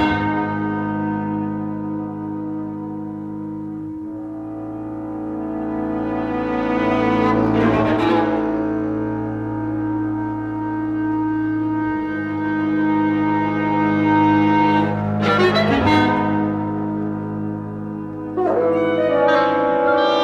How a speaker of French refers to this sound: … extrait … 1984